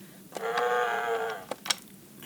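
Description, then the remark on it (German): A single cheap, electronic cow moo from an old plastic children's toy keyboard, buzzy and flat, lasting about a second, followed by a couple of short sharp clicks. No one talks. “Es ist eine Kuh von so einem ganz ömmeligen Kinderkeyboard.”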